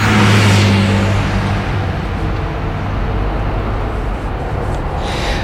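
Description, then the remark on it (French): A minibus carrying a whole group engine revs loudly with a low, droning hum, then settles into a steady, rushing rumble as the vehicle pulls away and keeps driving. No one speaks. “On part tous avec mon minibus.”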